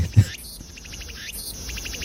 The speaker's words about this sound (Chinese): 这个到底是什么鸟哦？其实我我也不知道哈，我也没有问，听不出来。但这个鸟的声音很特别，很特别。